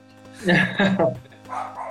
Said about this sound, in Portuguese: É, peço desculpa aí, cachorro tá latindo.